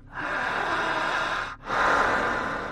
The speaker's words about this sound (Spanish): Intensa su respiración jalando el aire, fuerte, más profunda, intensa, jalando el aire